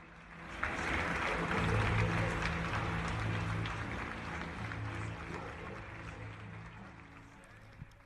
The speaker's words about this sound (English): I'm using this applause that you can hear right now.